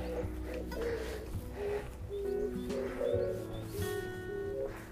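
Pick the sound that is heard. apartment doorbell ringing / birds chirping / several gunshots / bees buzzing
birds chirping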